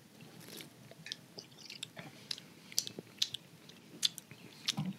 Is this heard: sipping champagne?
yes